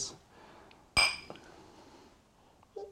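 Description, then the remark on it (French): A single bright clink of glasses of Scotch touching in a toast, sharp, its ringing tone fading over about a second amid quiet. “on se fait un cheers.”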